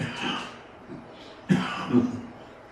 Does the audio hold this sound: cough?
yes